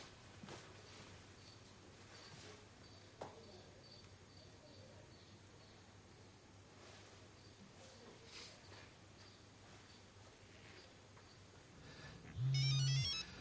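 A mobile phone suddenly starts ringing inside a car near the end, a loud electronic ringtone cutting in after a long stretch of quiet, low background hum.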